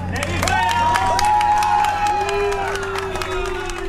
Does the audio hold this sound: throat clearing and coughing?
no